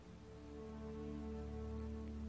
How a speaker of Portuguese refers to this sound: Você já está ouvindo o barulho de uma cachoeira.